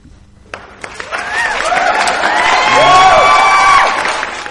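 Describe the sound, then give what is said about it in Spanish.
A crowd bursts into applause and cheering after a joke, clapping swelling quickly with whoops and shouts rising over it, loud and sustained for several seconds. “Bueno, parece que ha gustado a la gente, ¿no?”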